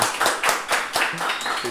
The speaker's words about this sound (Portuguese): Uma salva de palmas pro meu parceiro Nego Bala.